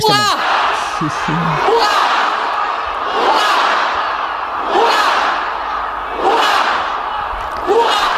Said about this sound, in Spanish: en el momento de, salida al balcón, pues arrancó con, tradicionales urras, creo que son nueve tradicionales urras que, el pueblo gritó con mucho júbilo, porque salió a la calle 150.000 mm, eh, personas, dicen